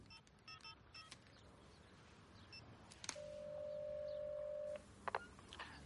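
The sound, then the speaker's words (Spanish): Quick mobile phone keypad beeps and taps at the start, then a pause and one long, steady electronic ringing tone before a few soft clicks, all fairly quiet with no voices. “Llama.”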